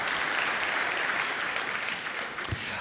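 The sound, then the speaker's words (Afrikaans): An audience claps steadily for the band, a dense, even wash of applause that holds at a fairly loud level for a few seconds with no voices standing out. “So, gee vir die orkes 'n lekker hande klap toe.”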